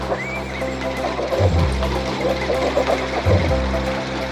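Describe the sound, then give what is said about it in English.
Horses whinny over a steady, rumbling clatter of hooves as they gallop, plowing fields in a race against tractors on a day of about 100 degrees. Two heavier thudding surges come about two seconds apart. “And they were off to the races, plowing the fields.”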